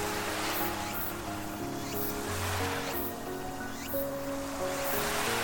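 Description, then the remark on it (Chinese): Ocean waves wash in a steady, continuous rush with gentle swells every second or so, layered over soft sustained musical tones. No one speaks. “放眼望去，还可以看到一片宽阔的大海。”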